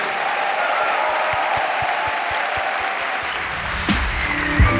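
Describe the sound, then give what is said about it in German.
A crowd applauds steadily for four performers at the close of an Eat, Read, Sleep show with the NDR Elbphilharmonie Orchester, a dense wash of many hands clapping at an even loudness throughout, with a few low thumps and a brief swell near the end. “Das war nämlich tatsächlich schon Eat, Read, Sleep gemeinsam mit dem NDR Elbphilharmonie Orchester mit und bitte nochmal einen großen Applaus für euch vier mit.”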